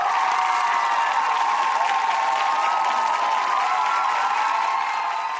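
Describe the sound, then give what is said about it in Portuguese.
An audience applauds steadily for about five seconds, welcoming two guests, a lawyer and a writer, to a discussion of K-pop; a dense, even wash of clapping with a hint of crowd cheering mixed in, holding at a constant loudness throughout. “Aplaudam, por favor.”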